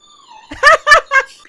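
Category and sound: animal, dog whining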